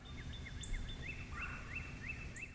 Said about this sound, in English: Oh, sounds like some cardinals are duetting back and forth.